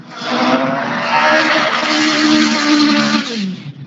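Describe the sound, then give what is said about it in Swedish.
A race car engine with a CVT gearbox screams steadily at its rev limiter for several seconds, loud, holding a high sustained whine with slight fluctuations and no talking. “Ja, han kör på varvstopp och CVT-låda.”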